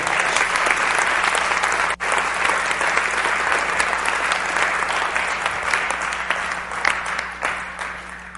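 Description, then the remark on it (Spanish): A church audience breaks into loud, sustained applause for the glory of the Lord, a dense wash of many hands clapping steadily for several seconds with a brief dip early on, then tapering slightly toward the end. “Yo le daría un fuerte aplauso a la gloria del Señor.”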